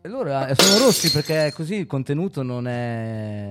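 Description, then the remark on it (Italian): Drinking glasses clink together in a toast, a bright ringing knock followed by a few lighter taps, beneath people talking. “Abbiamo allora, questo rito sacro del brindisi. Che, loro... che speriamo di non spaccare dei bicchieri.”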